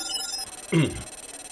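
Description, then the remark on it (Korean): A telephone rings with a fast, steady electronic pulsing, briefly interrupted by a louder tonal blip as a call in a hospital is put through. No one speaks. “아, 네, 전화 연결됐습니다, 교수님.”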